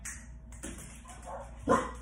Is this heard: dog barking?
yes